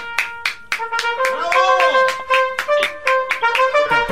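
An applause sound effect with trumpets: sharp, evenly spaced claps in a steady rhythm, about three per second, over loud sustained trumpet notes that swoop and hold, with no talking, played to cheer a woman caller.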